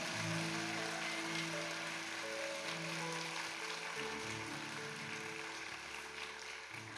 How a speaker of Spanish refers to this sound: Dele un fuerte aplauso al Señor Jesús si usted lo cree. Más fuerte ese aplauso si lo cree.